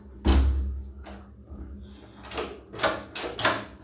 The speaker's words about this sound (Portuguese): Pera aí, deixa eu fechar aqui a porta.